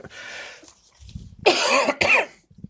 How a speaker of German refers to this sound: Kannst du noch mal kurz husten?